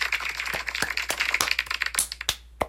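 A burst of hand clapping, with quick, uneven claps sharpening into several distinct louder claps toward the end. No one speaks.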